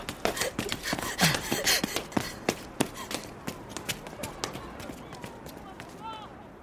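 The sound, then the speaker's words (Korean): Quick running footsteps thud in a steady rhythm as a person runs laps of a sports ground, gradually slowing and softening toward the end, with heavy panting breaths underneath. “불안정하게 헉헉거리는 숨소리가 점점 커지다 못해 운동장 전체가 나를 집어삼킬 듯이 비틀거린다는 느낌이 들 때까지 뛰었다.”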